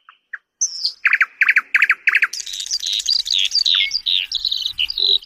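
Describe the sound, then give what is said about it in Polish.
A nightingale sings loudly, opening with a few soft notes, then a run of rapid repeated phrases, followed by a rich, continuous warble of high whistles and trills. “słowiki, które muszą perfekcyjnie wykonać swoją arię”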